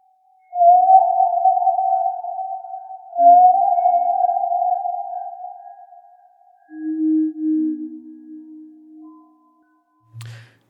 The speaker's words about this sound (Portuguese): Mas vocês já pararam para ouvir o canto das baleias?